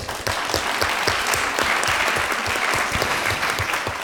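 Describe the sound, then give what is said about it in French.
An audience claps steadily and densely throughout for the round-table panels and teams, hosted at the agrocampus La Germinière in Rouillon in the Sarthe, a sustained wash of many hands at a fairly loud, even level with no talking over it. “et pour ces plateaux que vous pouvez donc aussi applaudir avec les équipes.”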